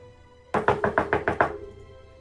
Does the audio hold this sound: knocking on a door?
yes